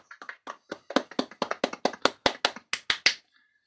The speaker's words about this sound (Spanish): Son aplausos, no crean que son otras cosas.